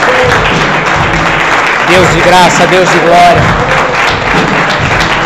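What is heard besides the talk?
audience applauding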